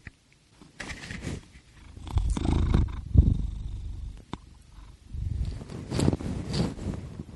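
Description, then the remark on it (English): A cat purrs in low, rumbling bursts that swell and fade, with brief pauses and some rustling handling noise in between; no one speaks. “And it's because you shoved that in his face that he has to stop purring so he can investigate it.”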